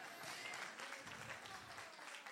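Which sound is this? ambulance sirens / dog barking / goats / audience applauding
audience applauding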